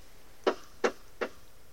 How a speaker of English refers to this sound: But then, the knocking began. It started with just the odd knock, and really it could have been written off as just sounds the house makes as it's settling at night. But then, it came again and again.